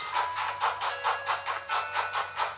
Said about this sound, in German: Guck mal, wir können hier mit der Eisenbahn spielen, die vor der Tür steht.